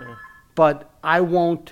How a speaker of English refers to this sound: sorry about that phone ringing.